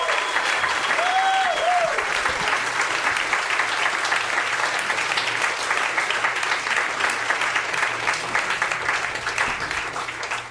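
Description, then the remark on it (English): A crowd applauds steadily, dense clapping at a strong, even level for about ten seconds, with a few brief whistles near the start and no speech over it, welcoming a musician, drummer of a band, on stage to play music. “So give him a round of applause, everybody.”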